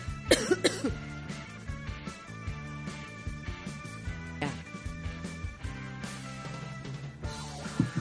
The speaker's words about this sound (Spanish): Sí, tengo tos.